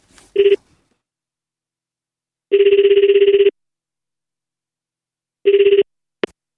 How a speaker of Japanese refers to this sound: お電話をしてみました。あの、そうなんです。IFA、あと新宿って調べて出てきた、えところにですね、お電話をしまして、電話取材。その様子をちょっと録音してきましたので、ちょっと皆さんに雰囲気聞いていただきたいと思います。